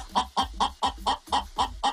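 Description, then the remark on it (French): A bantam hen clucks in a steady run of about eight short, evenly spaced calls over two seconds, fairly loud, with no talking. “J'ai dit jolie poulette, j'ai parlé à ma, à ma poule naine”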